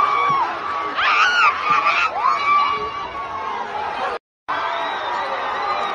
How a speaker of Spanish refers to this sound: Entonces, ves, si ves el video, para el video, pon el sonido. gente está gritando.